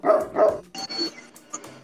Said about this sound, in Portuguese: Os únicos efeitos que eu tenho são latido de cachorro. E mesmo assim eu não sou capaz de controlar. Eles vêm quando eles querem.